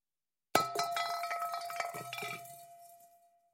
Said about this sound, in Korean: 요리사는 앞치마 주머니 안에서 꽁꽁 얼어 있는 눈알 몇 개를 꺼내 그들 아래에 놓여 있는 냄비 안에 떨어뜨렸다.